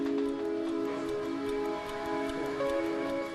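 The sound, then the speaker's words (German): A mechanical clock over 200 years old ticks steadily at an even pace, soft, over a constant tonal hum in the background. No one speaks. “Exakt müssen die mechanischen Uhren laufen. Diese hier funktioniert seit über 200 Jahren.”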